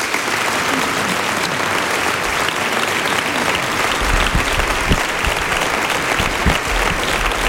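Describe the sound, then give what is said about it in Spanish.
Steady, sustained applause from a large crowd after the institutional speech of Jesús Aguirre, president of the Parliament of Andalusia, on 28 February, a dense wash of clapping that holds at an even level throughout, with a few heavier low thumps toward the end and no talking. “Pues acabamos de escuchar los aplausos de fondo, el discurso institucional de Jesús Aguirre, presidente del Parlamento de Andalucía.”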